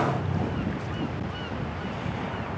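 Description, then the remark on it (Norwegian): Steady ocean surf rushes and washes continuously at a sea bay at Klettsvik, Iceland, a dense, loud roar of waves mixed with wind buffeting the microphone, with no voices present. “en svømte rundt i ekte grønt vann med plankton, uten vegger rundt seg, med lydene av bølger, hav fugler.”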